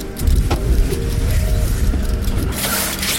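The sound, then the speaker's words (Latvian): Someone clambers up into a fire truck cab at the Rēzekne fire depot in Latvia: a sharp thump and scuffing, then shuffling and creaking over a steady low engine rumble, with no one talking. “Pirms dodos prom, ir iespēja iekāpt vēl vienā automašīnā.”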